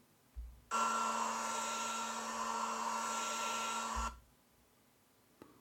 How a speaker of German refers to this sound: Die Sounds sind soweit in Ordnung. Ich schaue mal, ob ich sie jetzt hier eingespielt bekomme. Einmal der Föhn.